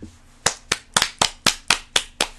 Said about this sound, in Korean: 어제 그 자기 전에 오늘 뭐가 제일 좋았나요 해서 음. 그런 점을 이야기하면서 박수를 쳤습니다.